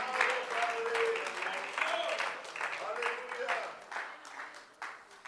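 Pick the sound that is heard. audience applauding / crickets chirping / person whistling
audience applauding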